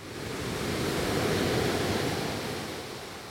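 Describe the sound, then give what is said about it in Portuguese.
Sea waves off Recife wash in a steady, broad roar that swells to a peak midway and gently recedes, heard alone with no voices over it. “Seguimos para o ambiente que faltava, o azul profundo do mar.”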